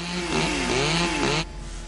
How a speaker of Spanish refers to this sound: Acercan dos motosierras al cierre metálico.